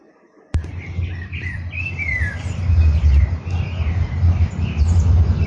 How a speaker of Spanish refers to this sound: Estamos escuchando un contrapunto de distintos pájaros. Vemos como uno le canta y el otro le contesta. No sé si lo pueden apreciar, pero es muy claro entre uno y otro de haber 50 metros de distancia.